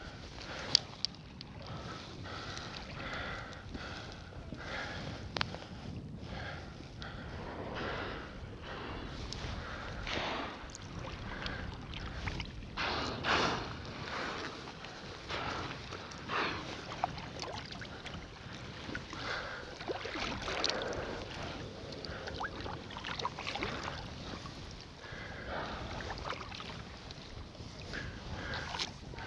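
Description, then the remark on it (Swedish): Humpback whales exhale in whooshing breathy bursts about 30-40 meters away in Kallfjorden, heard over steady boat engine, lapping water and wind noise outdoors; no one speaks. “Det vi hör nu det är när Patrik alltså är ungefär 30-40 meter ifrån de här valarna. Så man hör ju utandningsluften.”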